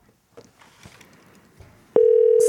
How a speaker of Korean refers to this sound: 전화 한번 걸어볼게요. 예, 0106님께 전화 걸어볼게요.